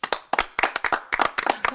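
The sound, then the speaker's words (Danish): A short burst of applause put in by the performer, with many quick, sharp hand claps overlapping in a brisk, uneven patter. It is moderately loud, with no voices. “Det er dejligt, at du selv putter klapsalver i.”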